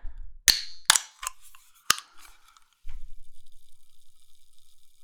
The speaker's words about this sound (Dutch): Eh, wel weer bubbels. Ik ga drankjes openen. En geen bier.